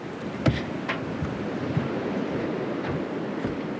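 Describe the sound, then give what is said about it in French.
Small waves lap steadily against the hull of a boat at anchor, a constant soft wash broken by a few light slaps and knocks, with no voices. “On entend un petit peu le clapot des vagues.”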